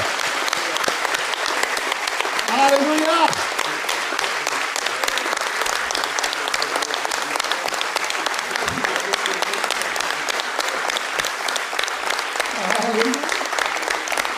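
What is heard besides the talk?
loud round of applause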